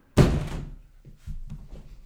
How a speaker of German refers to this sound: Und ich mach gerade mal mhm. das Fenster zu.